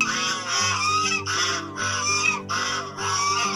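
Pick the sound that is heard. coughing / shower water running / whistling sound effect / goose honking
goose honking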